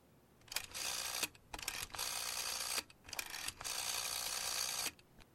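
Three fairly loud bursts of mechanical whirring and clicking, like a telephone dial being turned and released, each lasting about a second with short pauses between them, as Watson dials a telephone call to the man who sent the letter. No voices.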